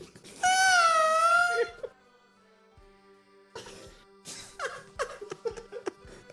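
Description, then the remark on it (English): A person voices a Japanese squirrel's call: one loud, sustained, squeaky cry lasting over a second, wavering slightly in pitch. After a short pause, bursts of laughter follow. “What does a Japanese squirrel sound like”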